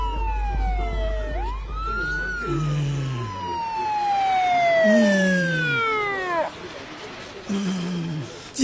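A wailing ambulance siren sweeps up and down in long glides, growing slightly louder as it nears, while voices murmur underneath and a rumble fills the start.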